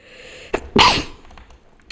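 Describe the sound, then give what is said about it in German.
A single sharp sneeze bursts out, preceded by a brief intake of breath, then fades into quiet background noise. “Gesundheit, sorry. Gesundheit.”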